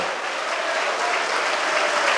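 A large crowd at a gathering in Natal, Rio Grande do Norte, Brazil, applauds Jesus steadily, a dense wash of clapping that stays loud and even throughout, with no voices standing out above it.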